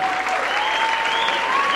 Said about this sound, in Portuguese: Vamos dar uma salva de palmas para ele?